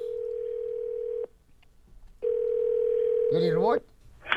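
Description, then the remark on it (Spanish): A telephone tone on an outgoing prank call: two long, steady, low-pitched hums separated by a second of quiet, with a short burst of voice breaking in as the second tone ends. “Entonces vamos a llamarla ahorita, pero escuchen nada más qué va a hacer en esta broma.”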